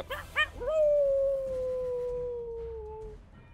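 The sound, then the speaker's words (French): A dog in a forest lets out two quick yelps, then a single long, wavering howl that slowly falls in pitch and fades after about three seconds. It sounds somewhat distant, with no talking. “Puis l'espace d'un instant, tu vous entendez un dernier jappement au loin”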